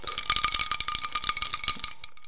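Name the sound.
glasses clinking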